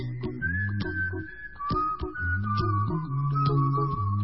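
A bright, steady whistled melody carries a song's tune, holding long notes over a bouncy backing of bass and rhythmic percussive hits, loud and up front with no talking.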